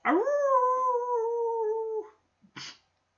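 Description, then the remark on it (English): A single human voice imitates a wolf howl, sliding up into a long, steady wail for about two seconds, then a short breathy burst afterward. “They do it better than me because there's three of them and there's just one me. I'm a lone wolf a married wolf, but a lone wolf.”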